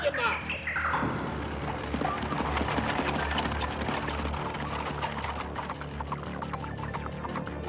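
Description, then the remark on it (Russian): Horse hooves clip-clop in a quick, steady rhythm, moderately loud, over a constant low rumbling hum that runs through the whole stretch. “Лошадей! Немедленно!”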